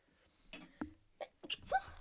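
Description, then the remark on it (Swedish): A sneeze, preceded by a few short catching breaths and ending in a sharp, moderately loud burst, with no talking. “Prosit. Prosit.”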